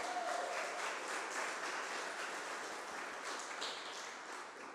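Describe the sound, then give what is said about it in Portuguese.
An audience applauds Jesus loudly, a dense wash of many hands clapping at once, sustained and fairly loud for several seconds with no individual claps standing out. “Aleluia, aplauda Jesus bem alto.”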